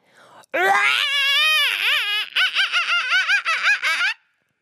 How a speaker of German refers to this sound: Stell dich hin Balle deine Hände zu kleinen Fäusten und trommel mal auf deiner Brust. Dabei schreien wir alle zusammen ganz laut und nochmal so laut du kannst.